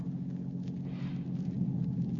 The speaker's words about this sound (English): I must have dozed, for I woke suddenly with a start and heard the first sound of thunder in the air. The air was hot against my face. No rain fell.